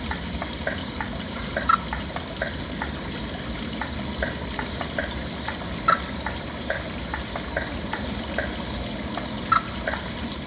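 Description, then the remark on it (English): A wild frog calls in response to a frog call played from a phone app, with short, clipped chirps repeating at a steady pace over a constant hissing outdoor background. A few louder calls stand out now and then, with no voices. “Oh, and we got a return. Did you hear that second one?”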